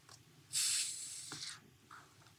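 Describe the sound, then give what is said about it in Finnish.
A drink is opened with a sharp hiss of escaping gas lasting about a second, a small click near its end, then quiet fizzing trailing off. “Kuunnellaan vähän sitä ääntä ja voidaan ehkä sanoa summa summarum, ruotsalaiset rakastaa tätä juomaa.”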